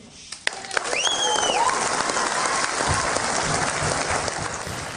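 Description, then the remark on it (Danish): An audience breaks into sustained applause for Sofie Karsten Nielsen of Radikale Venstre after a political speech, a dense wash of many hands clapping that swells quickly and holds steady, with a few faint whistles or cheers rising above it early on. “Øh, ja, så bliver der altså klappet og hovedet her af Sofie Karsten Nielsen.”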